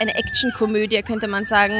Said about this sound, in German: Ihr hört im Hintergrund. Schreiende Kinder. Schreiende Kinder.